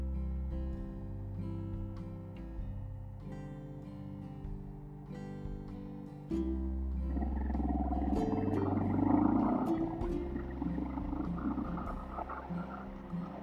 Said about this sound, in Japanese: エンジンの音聞こえてますかどうでしょう後で聞き直してみますけど。